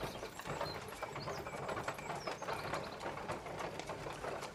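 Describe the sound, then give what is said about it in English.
Several horse-drawn wagons clatter and rattle as they come to a stop, with hooves clopping and wooden wheels creaking in a dense, steady jumble of mechanical knocks. No one speaks. “And then suddenly there's a stop as you hear a bunch of different carrot wagons come to a stop.”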